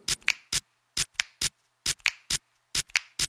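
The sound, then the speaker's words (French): Crisp finger snaps and sharp clicky hits in a steady rhythmic pattern, some with a brief ringing dish-like tone, as a man makes music by snapping his fingers and rubbing his dishes; about a dozen strikes with short gaps and no talking. “Il claque des doigts, il frotte sa vaisselle.”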